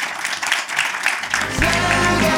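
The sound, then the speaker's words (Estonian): An audience gives applause for all the participants, the debaters and the audience, clapping in a steady, dense burst that keeps going throughout, with a low sustained tone entering underneath about halfway through. “aga kõigepealt teeme kõigile aplausi, aitäh.”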